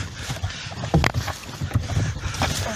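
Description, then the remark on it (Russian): A small boat rocks and moves on the water, with steady splashing and wash punctuated by a few sharp knocks and thumps against the hull. “Витек, помоги ему, я лодку держу.”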